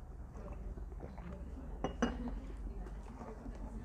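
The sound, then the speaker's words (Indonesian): A cup clinks a few times as the speaker takes a drink, with a brighter knock near the middle, amid quiet room noise and faint shuffling; no one speaks. “Ah, baik, saya minum dulu.”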